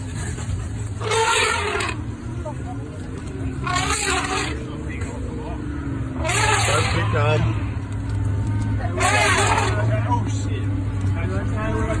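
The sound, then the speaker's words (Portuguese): A vehicle engine rumbles steadily while loud, brassy elephant trumpets burst out several times, some long and wavering, as an elephant chases a windowless safari jeep full of tourists that reverses at high speed, with faint voices. “No fundo aí é. É o rugido? O que, que é? É o barulho Fala. do é elefante. O barulho do elefante, exatamente.”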